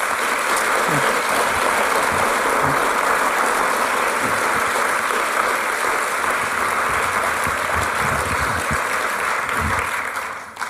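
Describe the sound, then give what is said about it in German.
An audience applauds steadily, a dense, even wash of many hands clapping that holds at a constant loudness for about ten seconds before tapering off at the end. “Gebt ihnen doch einen Applaus.”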